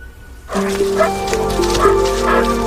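dogs barking

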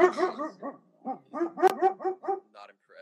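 puppy barking

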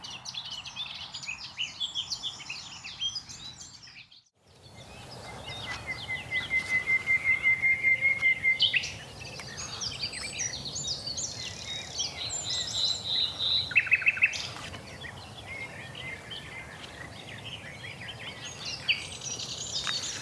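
nightingales singing

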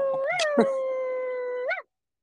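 dog howling

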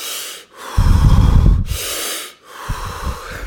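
deep

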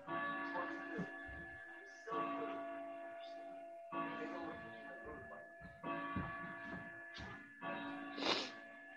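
doorbell ringing

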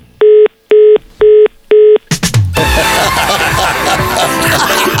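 telephone number being dialed

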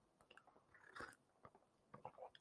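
sipping tea

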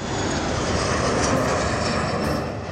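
airplane engine flying overhead

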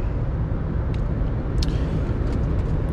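car driving

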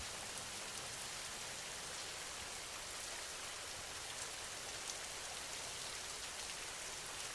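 rain falling

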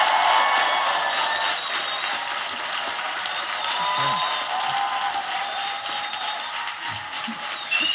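audience cheering and applauding

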